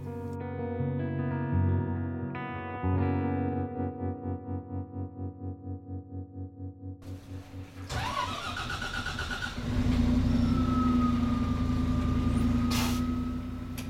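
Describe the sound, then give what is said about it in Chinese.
A bus engine cranks with a steady pulsing chug, then catches with a sudden burst and settles into a loud, continuous low rumble with a faint whine above it. No one speaks. “司机发动了公车，车灯闪闪发亮，引擎声隆隆作响。”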